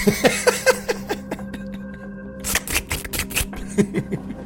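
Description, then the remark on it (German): A bus with worn-through flat tires comes around a corner, a steady rhythm of dull flapping thumps over a low engine drone, growing busier and louder partway through. No one speaks. “Mit stumpfen, flappenden Reifengeräuschen kommt ums Eck ein Bus, der euch sehr bekannt vorkommt, mit dem Rest der Rasselbande drin.”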